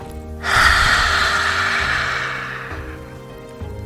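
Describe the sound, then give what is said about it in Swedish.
A single forceful, breathy exhale through the open mouth with the tongue stuck out, after breathing in through the nose in a relaxation exercise, rushes out loud, a broad airy hiss starting abruptly and fading over a couple of seconds, with quiet background hum and no talking. “Öppna munnen, ut med tungan, andas ut.”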